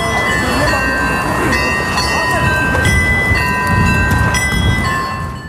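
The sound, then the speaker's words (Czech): The carillon on the old town hall of Žďár nad Sázavou chimes the hour, a series of struck bell notes with long, shimmering overtones ringing out over a steady low background rumble. “Zvonko hra na staré radnici Bežďáře nad Sázavou zaznamenává další uplynulou hodinu.”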